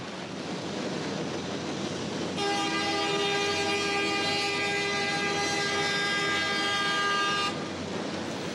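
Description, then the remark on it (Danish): A train rumbles past with a constant low roar, and a loud, steady horn blares for about five seconds in the middle before cutting off abruptly. “Toget kommer bare kørende ind i filmen.”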